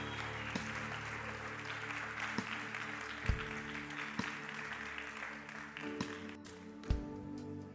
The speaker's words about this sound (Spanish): Colóquese sobre sus pies, iglesia. ¿Cuánto un aplauso al Señor esta mañana por eso? Amén.